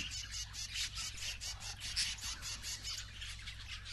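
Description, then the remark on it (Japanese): A keel-billed toucan, a bird with a green bill mixed with red and orange, squawks in a steady run of rapid, rasping calls that repeat without pause, moderately loud against a low, constant background hum. “覗くとそこに緑色のくちばしに赤やオレンジが混じったきれいな鳥がいた三色キムネオオハシ”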